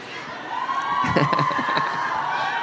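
A live audience cheers and applauds in a steady, dense roar of clapping and shouts that holds at a fairly loud level throughout, with a few louder bursts near the middle.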